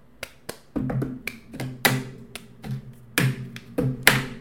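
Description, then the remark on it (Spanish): A rhythmic pattern of sharp taps and claps on a hard plastic object, the cup-song beat played with an air-conditioner remote control instead of a cup, about a dozen crisp hits in uneven groupings, with no talking. “Tengo, no tengo un vaso, pero tengo un control de aire acondicionado y debe funcionar, ¿no?”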